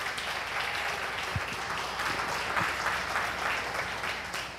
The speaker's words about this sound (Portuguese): Aplauda o Senhor porque ele merece, aleluia.